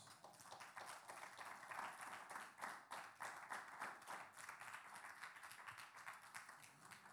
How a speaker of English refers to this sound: Give God a big round of applause.